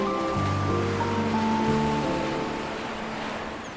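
Sea waves wash steadily against the Baltic Sea shore, a continuous broad surf hiss that fades slightly toward the end, with soft sustained musical tones layered underneath. No one speaks.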